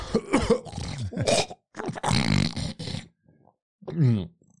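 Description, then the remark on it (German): A voice imitates a man with a cold coughing and snorting up mucus: several rough, harsh, throaty bursts in quick succession with short gaps, ending in a drawn-out guttural grunt. Fairly loud. “Hat er, umeinander, war hat er immer umeinander gehustet und ge den Rotz runterzogen.”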